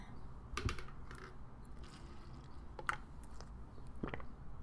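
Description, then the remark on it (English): Medication pills rattle inside a plastic pill bottle in several short, irregular shakes, each a burst of crisp little clicks, fairly quiet, with no talking. “ASMR, my pill thing shaking.”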